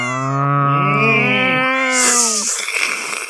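Several cats meow and yowl over one another in a drawn-out, overlapping chorus, loud, ending in a harsher hissing burst.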